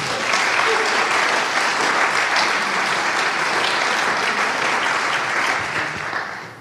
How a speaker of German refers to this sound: Ich möchte ferner vielleicht einen kurzen Applaus gerne